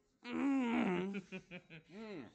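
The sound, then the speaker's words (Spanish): A long, loud, drawn-out burp rumbles for nearly a second, then breaks into several short croaky bursts and ends in a final wavering belch. “ya es el eructo, ya.”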